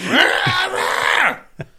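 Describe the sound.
A person imitates a howl with one loud, drawn-out wavering moan that bends up and down in pitch for over a second, then breaks off into a short breathy sound.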